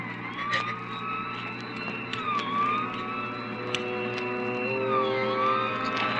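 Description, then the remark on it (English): A siren wails steadily, its pitch rising and falling in slow sweeps over a low rumble of traffic, continuous throughout with no voices. “We both heard the siren then.”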